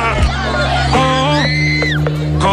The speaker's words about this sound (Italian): Ma chi è che urla sotto? Le fans. Secondo me è quella che sta cadendo da caduta libera. hanno, messo, hanno messo le urla sotto di quella che cade quando si apre la botola.